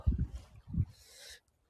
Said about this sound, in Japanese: 今日はですね、沖縄、今、チャタンの天気は晴れていまして、まあ、風があるんですが、多分、この放送中も風の音が入ってるかと思うんですが